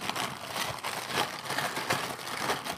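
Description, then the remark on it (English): Kellogg's Frosted Krispies cereal crackles and pops right by the microphone in a dense, continuous stream of tiny snaps, steady and fairly loud with slight swells in intensity, with no voices. “And then we have our Kellogg's Frosted Krispies, and they're going to snap, crackle, and pop right by the microphone.”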